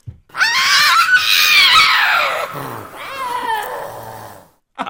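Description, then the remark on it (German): A Tasmanian devil screeches loudly, a harsh, raspy wail held for a few seconds, then a second slightly weaker growling screech before it cuts off. “Ein tasmanischer Teufel.”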